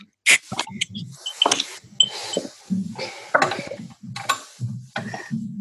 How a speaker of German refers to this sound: ja, das Hefeweizen läuft ja so sanft ins Glas hinein, hat eine ganz, ganz tolle Farbe.